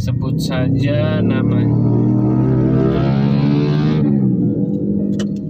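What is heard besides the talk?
loud motorcycle engine passing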